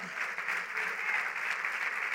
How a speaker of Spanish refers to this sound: Alguien le está aplaudiendo, pues lo está creyendo.